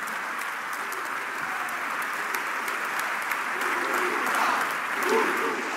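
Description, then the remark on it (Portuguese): Sustained applause from a large crowd of party members standing at a party congress, applauding a speech by André Ventura; a dense steady wash of clapping that holds level throughout, swelling slightly toward the end, with faint murmurs of voices beneath. “Diga-se que muitas das intervenções de André Ventura vão sendo aplaudidas de pé pelos militantes, agora com uma referência também ao número de jovens que saíram do país depois de Rita Matias.”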